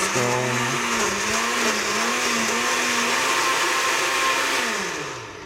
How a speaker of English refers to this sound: Uh, in the blender, I've got an onion and three stalks of celery and some water, and we're gonna puree it and then we're gonna strain it, and that is gonna go into the base as well.